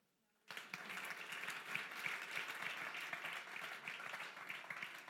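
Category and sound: crowd, audience applause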